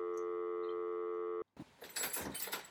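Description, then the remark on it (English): A steady electronic tone cuts off abruptly, then a front door is unlatched and pulled open for someone at the door, with a clattering rattle of latch and handle. “Oh, hang on. Bye, Mum. Someone at the door.”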